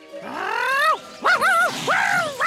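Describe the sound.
A voice imitates a fierce dog growling and snarling as it attacks a fox, in three loud, drawn-out bursts, the first longest, with short pauses between.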